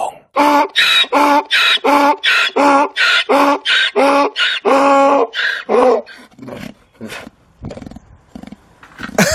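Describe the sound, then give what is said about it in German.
A donkey brays loudly in a long run of rhythmic, harsh hee-haw pulses, then falls silent, leaving a few scattered clicks and shuffling noises. “Und das war ein Esel.”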